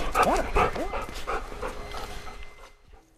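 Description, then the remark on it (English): A Canada Border Services Agency detection dog in Canada gives a quick run of excited yips and whimpering whines, loudest in the first second, then trailing off into softer panting sounds before falling quiet. “of course, dogs are just one way the CBSA detects illicit substances coming across the border.”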